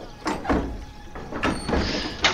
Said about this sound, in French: Frappe à la porte.